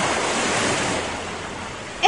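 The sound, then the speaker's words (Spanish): Broad, rushing wave noise surges loudly and steadily, like water crashing against a small boat, easing slightly before a brief sharp splash at the end. “y es que se desató una fuerte tormenta y las olas caían sobre el barquito.”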